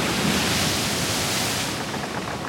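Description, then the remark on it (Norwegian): A steady, loud roar of crashing ocean waves fills the whole stretch, a dense wash of surf noise with a slight softening in the upper hiss toward the end, and no voices. “Ei lita jente på ti år blir tatt av en bølge og skylt over bord.”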